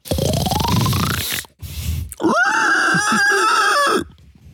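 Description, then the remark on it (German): A person grunts and squeals loudly in imitation of a pig, a rough snorting burst followed by a long, strained, pitched squeal lasting about two seconds, with no other talk. “Schweine so gern imitiert werden, weil es einfach gut ist.”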